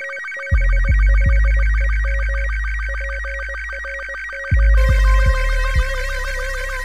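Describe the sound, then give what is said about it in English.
An incoming Guild transmission signal tone: a loud warbling electronic beep pattern repeating throughout, punctuated by two bursts of three deep booming hits, with no voices. “Incoming Guild transmission code Juliet Uniform November Golf Lima Echo”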